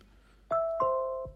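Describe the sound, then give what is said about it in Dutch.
The two-tone doorbell chime of an Apple HomePod: a clear ding followed by a lower dong that rings out and sustains before stopping, moderately loud with no talking. “Ja, en dat is heel specifiek eh, het deurbelgeluid van de Apple HomePod.”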